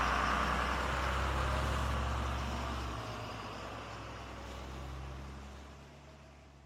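A heavy truck engine roars loudly with a deep rumble as the driver floors the pedal and speeds off from Karl Johan street, then the sound eases and gradually fades as the truck pulls away.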